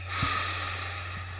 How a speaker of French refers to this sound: 1, on prend une grande respiration.